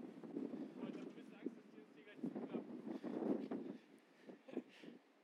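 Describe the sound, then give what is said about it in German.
Strong wind buffets the microphone outdoors up high with a continuous low, rumbling roar that swells in gusts, while muffled voices talk faintly underneath. “Und das war auch wieder eine sehr schlechte Idee, weil es sehr windig ist.”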